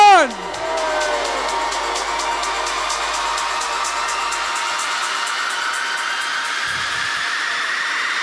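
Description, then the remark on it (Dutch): A large crowd on the Blauwpoortsplein applauds and cheers loudly and steadily for several seconds, a dense wash of clapping with shouts and whoops mixed in, after a brief falling vocal note at the start. “Ik zeg uh, eh, Vins, een waanzinnig applaus voor jullie zelf.”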